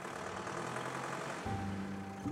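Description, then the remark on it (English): A truck engine rumbles steadily at dawn, then its pitch shifts midway as it revs and the truck drives away, a continuous mechanical drone with no voices. “We put the boat ashore, and with nary a word, we hopped into our trucks and started back to St. Gaff's.”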